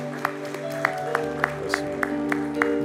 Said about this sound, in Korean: 우리 하나님 앞에 영광의 박수 올려드립니다.